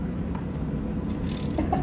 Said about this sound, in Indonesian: Oh kaget gitu gue, binatang apa tuh? Mana? Tadi ada suara kayak kodok gitu kan? oh iya, kita podcast di luar ya? Iya Kita podcast di luar